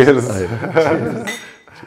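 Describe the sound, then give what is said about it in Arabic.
Glasses clink together in a toast, a light ringing chime beneath overlapping voices and a bit of laughter-like chatter. “آه، مش تشيرز تشيرز”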